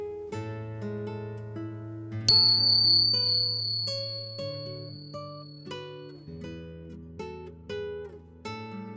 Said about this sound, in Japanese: リラックスできる鐘の音を聞いていただいてからスタートです